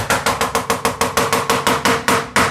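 Walnuts being chopped with a knife for a salad: a steady series of about fifteen sharp, dry chops in quick, even rhythm, loud and percussive, with no talking.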